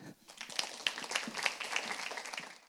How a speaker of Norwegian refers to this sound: Og eh, ja, gi din en god applaus.